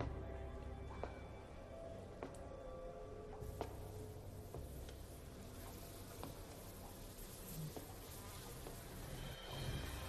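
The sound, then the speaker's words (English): A steady, dense buzzing of bees at a Candyman shrine fills the scene, continuous, with occasional faint clicks and brief tonal blips over a low droning background. “There's bodies and bees.”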